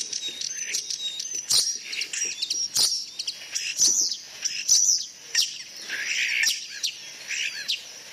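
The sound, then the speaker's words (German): A starling sings a busy, varied stream of whistles, clicks and chattering notes, including snatches that mimic other birds, fairly loud with sharp rattling bursts throughout. “Da hört man auch schon so raus, dass er manche andere Arten imitieren kann, finde ich.”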